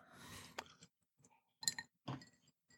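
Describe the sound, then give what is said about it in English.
Glasses clink together in a toast, a few bright chimes spread over a couple of seconds amid soft handling noise and shuffling, with no talking. “Raise your glasses Cheers. Cheers.”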